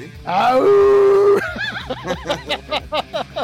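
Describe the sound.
A person lets out a loud, rising howl in imitation of a wolf, held for about a second, then breaks into a quick run of short, arching yelps or laughing yips.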